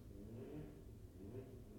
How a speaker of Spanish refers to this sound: estamos escuchando el motor de una moto.